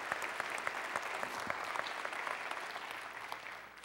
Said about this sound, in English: Hey, one more round of applause. Thank you, guys. Good work.